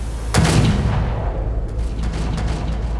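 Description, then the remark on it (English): A single sharp gunshot cracks out, then rolls into a long, booming reverberation off iron and glass that fades slowly all the way down to the well of a large building, with faint secondary echoes trailing behind. “The gunshot rings out, echoing loudly off the iron and glass and all the way down to the well of the building overflowing with drawn guns and fire and water like blood.”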